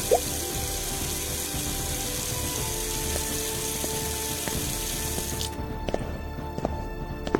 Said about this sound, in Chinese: 我气昏了，他们刚一消失，我就奔进厨房，打了一盆自来水，把板刷丢进水盆。